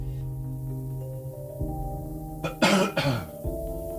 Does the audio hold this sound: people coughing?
yes